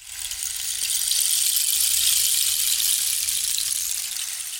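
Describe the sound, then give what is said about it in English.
A rain stick pours out a steady, bright hiss of tiny rattling grains that swells gently and holds for several seconds before easing off slightly at the end, with no voices. “Can you can you play us some kind of like rain stick music to get in the mood?”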